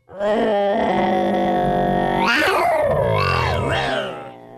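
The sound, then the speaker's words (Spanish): A person voices a loud, drawn-out lion roar, starting as a strained sustained tone and breaking into a rough, rumbling growl with wavering pitch before trailing off, heard alone. “Un, un león, ¿cómo le hace? ¿Un león? ¿Cómo le hace?”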